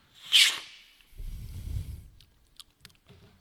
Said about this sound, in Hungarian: Na várj, akkor még egy, még egy, még egy ilyen kortyot. Szürcsöljek egyet? Aha. Ó, nem sikerült.